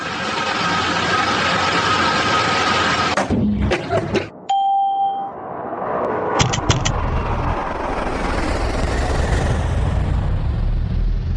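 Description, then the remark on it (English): Steady loud engine roar cuts out amid a few clicks, a single electronic chime sounds, then a broad whooshing roar swells and builds as aircraft engines spool up and keep running, in a flight simulator game. “Okay, engines are on.”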